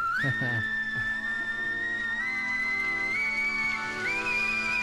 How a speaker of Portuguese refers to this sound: Assobiando. essa versão é uma versão da televisão alemã. É, 72.